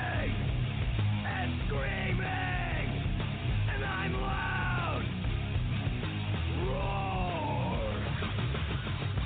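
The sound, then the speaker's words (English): A voice yells and screams in long, strained bursts over a dense, loud wall of early-90s-style heavy metal music, steady and pounding throughout, in a Geico car insurance commercial. “Like early 90s heavy metal hard. I'm yelling!”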